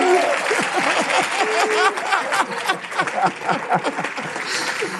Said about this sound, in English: Would you welcome to the stage Reverend Devon Franklin? Come on, clap your hands, make a welcome